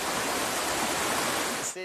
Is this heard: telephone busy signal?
no